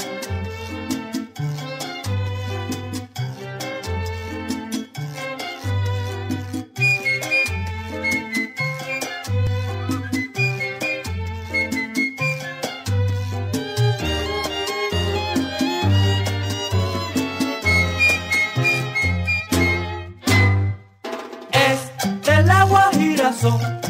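A lively Cuban son played by a charanga ensemble, with a steady bass tumbao, bright melodic lines and syncopated percussion driving along at full volume, purely instrumental with no singing yet.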